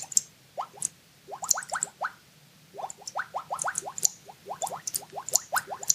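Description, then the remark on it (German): Bubble-themed keyboard typing sound effect: a quick, uneven run of rising plops and bloops, one per keystroke, each with a faint high click, steady and moderately loud with no voices. “Das ist die, das Bubble-Theme?”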